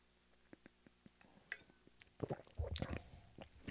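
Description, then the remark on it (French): Quiet mouth sounds of someone taking a small sip of coffee: soft clicks and a brief wet slurp, followed by a swallow and a louder breathy exhale, with no talking. “Je vois pas une petite gorgée de café.”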